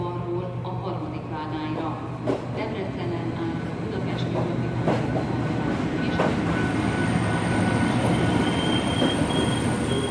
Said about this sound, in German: Zug, ungefähr halb neun Uhr abends. Die Dämmerung bricht gerade herein. Um mich sehe ich die äh, Steppe Ungarns. Es rüttelt die ganze Zeit. Man kann die Fenster aufmachen, was auch toll ist. Dann dringt die warme Sommerluft in den Zug.